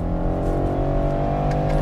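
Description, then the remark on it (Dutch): The engine of an automatic car, put into manual mode and shifted with paddles, drones steadily under acceleration, a dense, continuous mechanical hum with a low rumbling tone that holds loud throughout, with no voices. “Ik ga hem even in de manual zetten. Dan schakelt hij zelf.”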